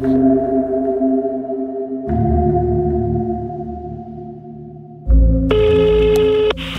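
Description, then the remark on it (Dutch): An outgoing phone call placed by a De Standaard reporter rings: steady tonal ringback tones in long sustained stretches, then a brighter, harmonically rich tone near the end as the line connects. No one speaks. “Ik, ehm, ik bel eens om te horen hoe het daar is.”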